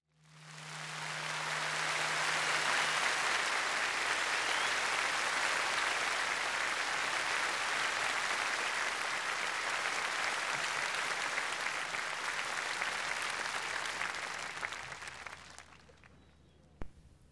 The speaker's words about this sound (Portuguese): Terá sido assim que, na varanda da Câmara Municipal de Lisboa, José Helvas ouviu a população a aplaudir a implantação da República. Correu dia 5 de outubro de 1910